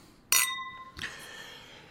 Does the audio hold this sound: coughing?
no